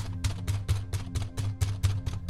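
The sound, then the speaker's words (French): A rapid series of about ten heavy, booming thuds as a man pounds hard with his fist on a back door, falling in a steady insistent rhythm with no voices. “Cette fois, il n'y avait pas de sonnette. Alors, il a frappé avec un poing lourd”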